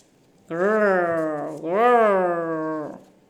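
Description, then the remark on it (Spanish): A human voice imitates a dragon's growl as the beast sniffs for an intruder: two long, drawn-out voiced snarls back to back, fairly loud, with no other sound around them. “gruñía la bestia mientras olfateaba buscando al intruso.”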